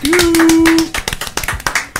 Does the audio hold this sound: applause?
yes